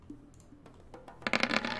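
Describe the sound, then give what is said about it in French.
Dice rolled for a brawl and melee check at difficulty 6 in a tabletop role-playing game clatter across a hard surface: a few faint taps at first, then a dense burst of bright, rapid clicks as they tumble and settle, with no talking. “Attention, c'est lancé.”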